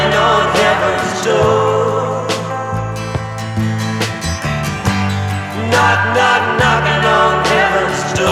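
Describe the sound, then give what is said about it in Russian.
The original 1973 recording of a slow folk-rock song plays loud and continuous, a wavering sung vocal over steady bass notes, strummed guitar and drums, with no talking over it. “Одно из самых известных э, своих песен «…» … написал в 1973 году, и вот как звучал оригинал.”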